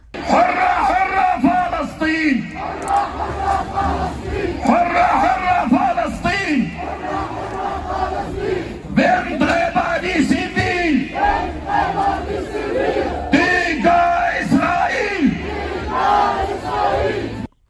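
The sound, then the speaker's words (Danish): A large crowd at a pro-Palestinian demonstration at Den Røde Plads in Nørrebro, Copenhagen, Denmark, chants loudly in rhythmic unison, 'free Palestine', a lead voice calling out and many voices answering in repeated waves, energetic throughout, with yells rising over the chant. “pro-palæstinensiske marcher eller demonstrationer de seneste dage, også i Danmark”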